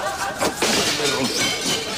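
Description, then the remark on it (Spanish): Glass spiral pieces shatter in a loud crash, followed by a scatter of bright tinkling and clinking fragments that carries on for over a second. “Mire, ya me ha roto los helicoidales de vidrio.”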